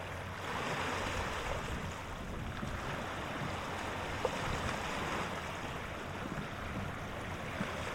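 Steady roar of ocean surf breaking against rocks, a dense continuous wash of water with no distinct individual wave hits, moderately loud, with no voices.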